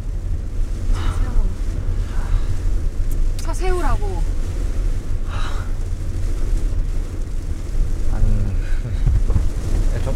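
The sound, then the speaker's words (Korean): Steady, dense rain hisses throughout with a heavy low rumble underneath, while brief voices rise now and then over the constant downpour. “아 비오대 우산이라도 쓰고 얘기하던가”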